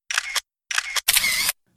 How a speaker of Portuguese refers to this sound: tragédia ou crime, é bem difícil pensar em ajustar o ângulo da câmera, medir a distância focal, pensar em filtro, controlar a intensidade da luz, verificar o fotômetro, conferir a velocidade do obturador e finalmente disparar o clique fotográfico.